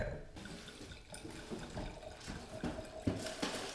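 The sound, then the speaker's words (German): A drink being poured into a glass: a steady, splashy stream of liquid for a few seconds, with small clinks and gurgles as the glass fills. “Du kannst ja mal einschenken okay, und ich hole die Eiswürfel, holst du Eiswürfel okay?”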